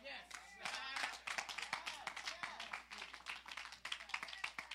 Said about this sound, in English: I ain't get enough hand claps.